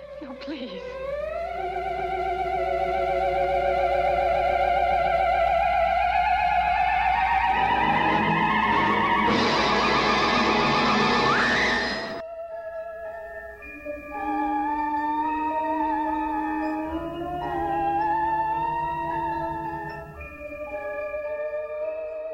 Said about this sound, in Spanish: Con el theremin se obtenían sonidos muy especiales, algunos hasta escalofriantes.